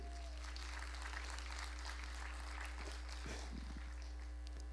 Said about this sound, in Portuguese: Dê uma salva de palmas, que esse foi um presente de Deus, né?